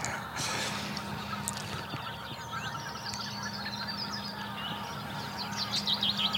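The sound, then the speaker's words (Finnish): A flock of migrating geese calls continuously during their spring stopover, overlapping honks and chatter forming a steady clamor outdoors, with a low hum underneath. “Mistähän se johtuu, että hanhet on muuttaneet näitä muuttoreittejään, koska tämähän on aika u- tuore ilmiö?”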